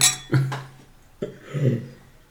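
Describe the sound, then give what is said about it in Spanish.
Glasses clink together in a toast: a few bright taps with a short ringing tone, followed by a softer knock a moment later over a quiet low background. “Salud.”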